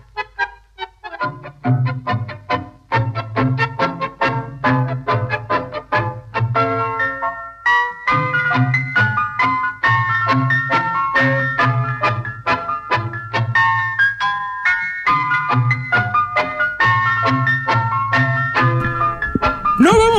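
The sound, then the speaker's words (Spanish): A bright, bouncy electronic summer radio station jingle with a chiming, music-box-like melody over a steady bass pulse, playing loud and continuous with no talking. “esta es la artística de verano, no te asustes.”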